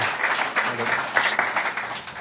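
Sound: audience applause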